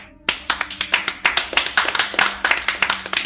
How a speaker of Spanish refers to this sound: Ok. Un aplauso.